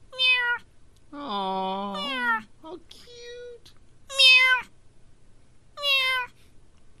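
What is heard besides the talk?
kitten meowing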